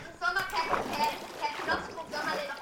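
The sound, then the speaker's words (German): Water splashes and sloshes steadily for a few seconds as a redstone-powered dispenser in a video game spews out water, a continuous spattering gush with voices or tonal game sounds mixed over it at moderate loudness. “ich habe äh, Redstone, äh, einen Werfer und äh, also, der das Wasser halt aus auskackt.”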